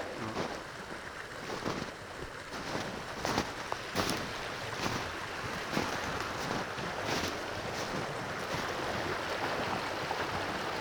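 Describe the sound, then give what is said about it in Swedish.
A small open brook of running water flows steadily with a continuous rushing gurgle, dotted with brief splashy ticks, and no voices are heard. “Här är det ju faktiskt öppet rinnande vatten.”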